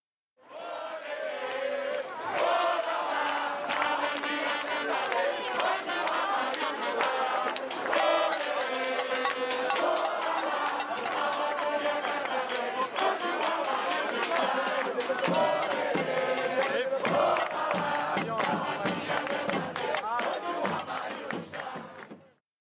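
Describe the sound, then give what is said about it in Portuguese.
A large protest crowd at a 2013 demonstration in Brazil over a man's disappearance chants together in loud, rhythmic unison, many voices shouting the same phrase over and over, dense for about twenty seconds. “Você irá ouvir agora um dos gritos das manifestações organizadas em 2013 após o seu desaparecimento.”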